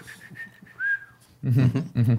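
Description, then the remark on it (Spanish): A person whistles a short, thin melody of a few sustained notes, ending in a rising then falling tone, before a voice starts speaking loudly over where the whistling stops. “Silbaba mientras enterraba vivas a las otras.”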